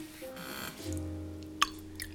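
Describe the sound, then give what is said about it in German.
Fizzy water is poured on top of white wine in a wine glass, about 10% water, a short, quiet trickle followed by a single bright drip or clink near the end, with no voices. “Fürs Auge nochmal 10% Wasser drauf. Nein, das ist nicht fürs Auge, das ist nur die Kohlensäure.”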